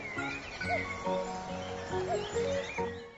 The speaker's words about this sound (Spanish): Caminó por la trocha cerca de una cocha y escuchó el canto de unos pájaros.